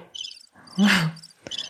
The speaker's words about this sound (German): Also guck so hört sich eine Zirpe an.